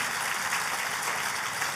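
An audience applauding for God, dense and steady clapping that holds at an even loudness for the whole moment, with no voices standing out above it.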